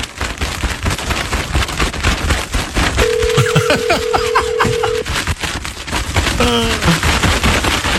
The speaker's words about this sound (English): Can you hear my kite?